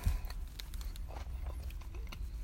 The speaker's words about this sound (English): So here's the sound of me eating my sandwich. It's really good.